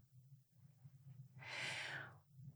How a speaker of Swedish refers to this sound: Och så sluter du dina ögon. Ja. Och bara andas in och ut genom näsan. Ja. I ett par andetag.